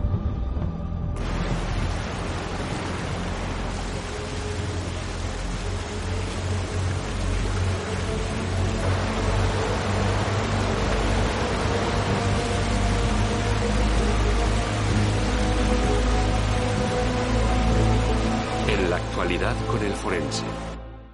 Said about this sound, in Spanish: La lluvia torrencial provoca una crecida del río.